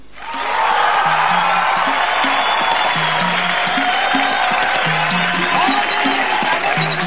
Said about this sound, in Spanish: Así que un gran, un gran y fuerte aplauso para mis dos mujeres que las tengo aquí al ladito.